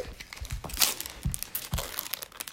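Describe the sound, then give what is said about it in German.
A young man tears open the foil wrapper of his last card pack: irregular bursts of crisp crinkling and ripping over a couple of seconds, with soft low thumps of handling and no talking. “So, und jetzt öffnet hier, hat der junge Mann sein letztes Pack auch schon.”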